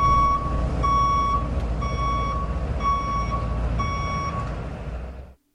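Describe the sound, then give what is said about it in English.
A Brinks armored truck backing up: its reversing alarm beeps five times in a steady, evenly spaced rhythm, loud over a constant low engine rumble, then cuts off abruptly. “I back up the motherfucking Brinks truck.”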